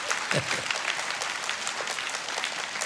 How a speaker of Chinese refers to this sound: 看样子你们鼓掌鼓得不甘心的样子，有一些嫉妒吗？还是怎么样？